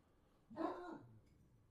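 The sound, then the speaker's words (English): A single short dog bark, a brief burst against a quiet background with no talking. “We got more barking.”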